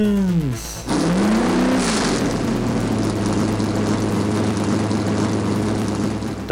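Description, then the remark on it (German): Loud V8 race car engines roar, opening with a quick pass-by whose pitch swoops down, then settling into a dense, sustained high-revving drone with no talking. “Drivers, start your engine!”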